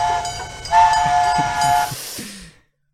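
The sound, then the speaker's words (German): A loud train horn sound effect, played from a soundboard, blares in sustained, harmonically rich blasts over rumbling rail noise, pulsing a few times before cutting off abruptly into silence, with no voices present. “Wo ist der Hype-Chain, wenn man ihn braucht?”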